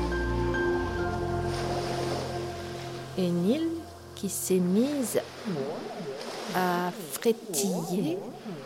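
Sea waves wash in a steady, rolling roar throughout, while wavering, sliding vocal tones rise and fall over the surf in the second half.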